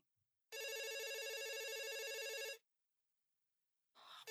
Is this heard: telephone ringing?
yes